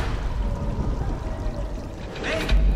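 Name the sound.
rain falling outside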